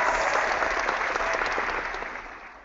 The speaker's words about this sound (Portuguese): A ah, salva de palmas para as meninas campeãs dos 10 km.